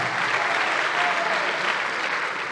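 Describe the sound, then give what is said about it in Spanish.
A crowd applauds loudly and steadily throughout, a dense wash of clapping, with a short cheer rising briefly above it midway. “Te están animando.”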